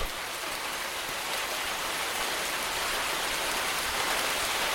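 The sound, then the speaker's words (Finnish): Steady rain falls at an airport in a dense, continuous hiss, drops pattering evenly on surfaces at a moderate level throughout, with no voices or other sounds. “Ja nyt kierrän sateessa lentoasemaa välttääkseni kamerat ja mikrofonit.”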